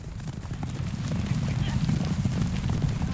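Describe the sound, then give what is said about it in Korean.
Horses gallop hard on the racetrack of Let's Run Park, a horse racing track in Gwacheon: a dense, continuous drumming of hooves with a heavy low rumble that swells slightly and holds steady throughout. “말들이 힘차게 달리는 소리가 들리는 이곳은 과천에 있는 경마장 레츠런 파크.”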